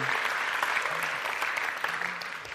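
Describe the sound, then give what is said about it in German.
A crowd applauds steadily, a dense wash of many hands clapping at an even level throughout, with a faint low voice murmuring underneath. “Vielen Dank, fetten Applaus”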